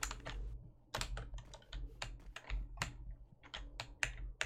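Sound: computer keyboard typing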